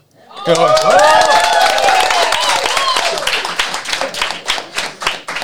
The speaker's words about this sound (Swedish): Härligt med applåd! Vi, vi tar en till tycker jag.